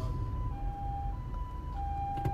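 An ambulance siren wails in a steady two-tone pattern, alternating high and low pitches over low traffic rumble, moderately loud as it passes by.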